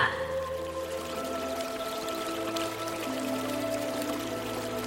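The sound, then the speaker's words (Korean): A steady, continuous wash of clear water flowing in a stream that crosses a park runs throughout, trickling and bubbling at an even level, with sustained tonal hums layered beneath it and no voices. “가지가 잘 뻗은 키 높은 나무 사이로 푸른 잔디밭이 펼쳐져 있고 맑은 물이 흐르는 개울이 공원을 가로지르고 있습니다.”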